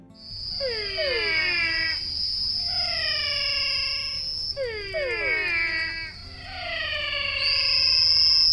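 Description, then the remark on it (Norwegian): A fox gives a mating call in a series of wavering, downward-sliding cries, about four bursts a couple of seconds apart, fairly loud over a steady high-pitched drone of crickets. “Det velkjente ulveropet har sin parallell hos reven, f.eks.”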